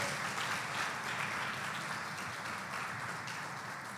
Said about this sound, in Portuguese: Aplauda forte ao nosso Deus.